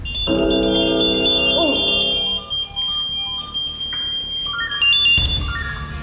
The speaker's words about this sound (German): Jetzt klingelt hier was. Jetzt sind Proberufe. Einmal in der Woche wird getestet, ob unsere Funkmeldeempfänger funktionieren. Und jetzt fangen gleich alle Funkmeldeempfängers das Pipsen an.